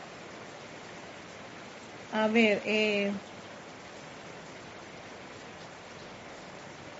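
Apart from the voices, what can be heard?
raindrops falling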